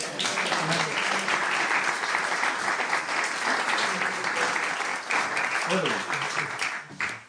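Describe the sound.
A crowd claps steadily for several seconds, a dense, even wash of many hands with faint voices mixed in, tapering off at the very end.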